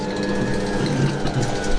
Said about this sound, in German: Ah, der Motor läuft, ja, okay.